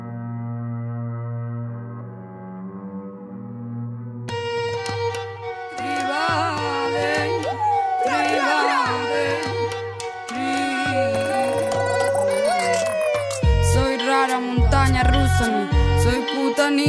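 Music opens with a few seconds of sustained low synth tones, then a full arrangement kicks in with pulsing bass, beats and bright melodic lines, playing loudly and continuously to the end.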